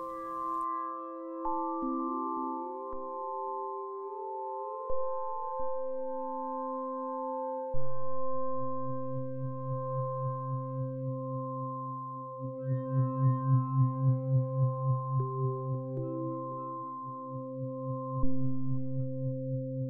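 Gentle meditation music track for an intuitive meditation and body scan, with long sustained tonal drones and soft swelling low tones that pulse slowly, steady and calm at a moderate volume, with no voices.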